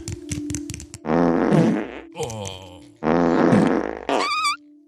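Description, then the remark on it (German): Two long, loud, buzzing farts, the second ending in a squeaky high-pitched rise, follow a few short rattling pops. A brief exclamation from a voice comes near the end. “Bitte nicht so laut, …, das geht oh. auch leise”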